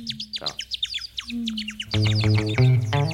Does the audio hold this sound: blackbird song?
yes